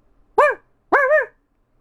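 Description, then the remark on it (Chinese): A dog chasing a cat, which darts up a tree, barks twice: two loud, mid-pitched woofs separated by a short pause, the second bark longer and slightly drawn out, with silence around them. “猫儿窜到树上，躲开追它的狗。”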